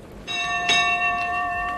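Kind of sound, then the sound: signal or alarm, ship's bell ringing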